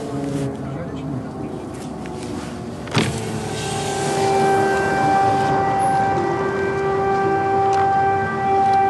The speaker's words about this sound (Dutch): Wat misschien ook niet helemaal veilig is en het luchtalarm gaat af hier in Lviv. En helemaal niemand reageert erop.